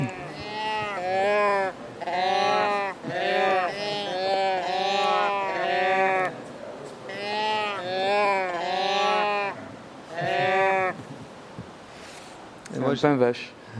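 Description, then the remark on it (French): A hand-cranked, bread-shaped instrument made by an instrument builder gives out a string of wavering, sheep-like bleats in loud bursts with short gaps between them, ending in a few scratchy, rising squeaks. “que c'est un pain qui qui chante.”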